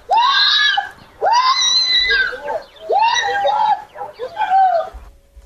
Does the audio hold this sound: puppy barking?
no